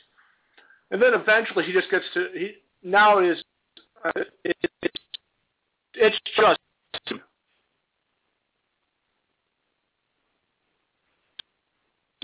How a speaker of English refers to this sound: Uh, well, I can, but you're breaking up an awful lot.